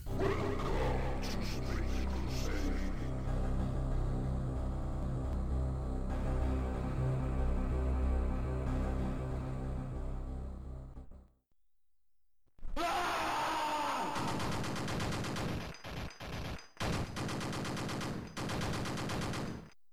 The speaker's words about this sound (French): Je, vous invite à aller voir des extraits de, gameplay, notamment de, de, Space Crusade. Donc, pour nous mettre dans l'ambiance, un, un petit extrait sonore du jeu.